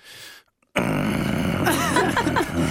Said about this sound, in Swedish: Eh, man låter när man lutar sig framåt eller böjer sig. Vänta, jag ska bara sätta mig på stolen.